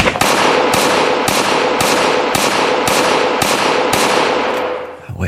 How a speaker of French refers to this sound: Il se fait tirer dessus neuf fois, presque à bout portant.